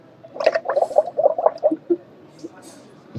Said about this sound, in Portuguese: Espero que isso se ouça o, o sumo de laranja a borbulhar. Oh, vai-se ouvir. Vai-se ouvir. Acho que sim, espero que sim.